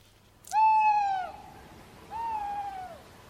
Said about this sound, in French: la hulotte ulule